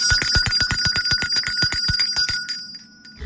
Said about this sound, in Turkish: Zil sesinden sonra hem suyumuzu içelim hem de su içerken elde ettiğimiz faydayı dinleyelim. İşte o zil sesi.